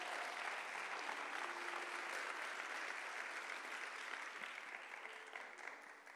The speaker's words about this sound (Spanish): Vamos a dar un aplauso al Espíritu Santo.